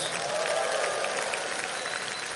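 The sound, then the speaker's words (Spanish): A church audience applauds for the Lord during a sermon, steadily, a dense wash of many hands clapping at once, sustained and fairly loud throughout, with no single voice standing out. “Ahora sí, dele un aplauso al Señor, déselo con un grito de júbilo, vamos.”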